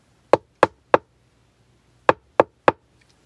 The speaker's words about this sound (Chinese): 到了青蛙家，癞蛤蟆敲敲门，